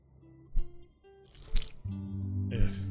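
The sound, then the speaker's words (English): Wet, squishy liquid noises, with a few drippy squirts and splats in quick succession over a low tonal hum, fairly loud. “Yeah, like I said, there's a lot of squirting and, and noises and smacking things.”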